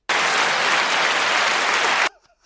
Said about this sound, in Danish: Ja, det var bedre. Der er applause.